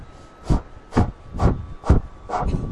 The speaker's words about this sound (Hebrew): ואנחנו הולכים לעבוד עכשיו עם נשימה שיכול להיות שתעלה לכם את חום הגוף, וזה בדיוק המטרה. היא נקראת נשימת אש. זה הולך ככה.